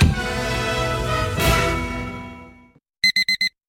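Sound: alarm clock ringing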